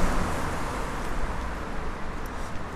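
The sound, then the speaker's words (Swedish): Steady traffic rush fills the street beside a McDonald's, a broad hissing roar of cars moving past at high speed, with the sizzle of tires on the freshly watered pavement. No distinct single passby stands out and nobody speaks. “Det ligger ett McDonalds och bilar åker förbi i hög fart på de nyvattnade gatorna.”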